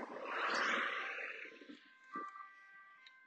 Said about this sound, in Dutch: Sorry hoor, je moet een beetje lachen om al het verkeer wat nu langs komt.